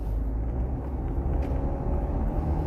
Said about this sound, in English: There's a lot of traffic today. I'm going to I'm gonna try to sneak in here, see what they let me do.